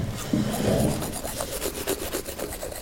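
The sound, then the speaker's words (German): A toothbrush scrubs in quick, rhythmic back-and-forth strokes, a steady raspy bristle sound that repeats many times over a few seconds with no voices. “Zum Beispiel beim Zähneputzen, was die meisten Laien ja eher schlecht erledigen.”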